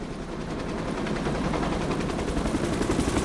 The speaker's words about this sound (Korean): 헬리콥터를 타시고 만하임으로 날아가는 레오폴트